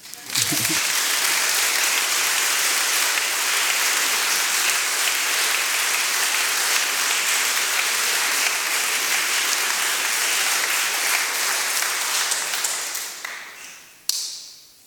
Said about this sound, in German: Ich glaube, ein Applaus wert.